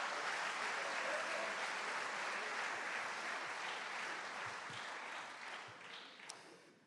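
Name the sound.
audience applauding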